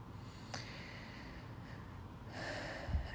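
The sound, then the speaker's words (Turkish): A deep breath: a quick sharp intake, then a longer, breathy exhale toward the end, with no talking. “Ee, böyle derin bir nefes alasım geldi bunu söyledikten sonra bu arada.”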